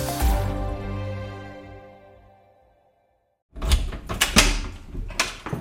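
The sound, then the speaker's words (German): A farmer unlocks and opens a door to the room holding the milking parlour for his 100 dairy goats: a few sharp metallic clicks and clunks followed by a rattling handle, after a sustained tone fades out into a brief silence. “Noch einmal sperrt Landwirt Christoph Röckel auf. Im Raum hinter der Tür steht die Melkanlage”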